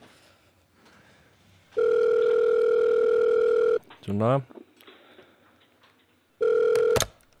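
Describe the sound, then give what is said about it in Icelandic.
A telephone ringback tone on an outgoing call to an Icelandic record holder: a long steady two-pitch tone, a pause with a brief rising chirp, then the tone starts again, cut off abruptly. A voice speaks briefly in between. “Ok, ég ætla að ringi í hann”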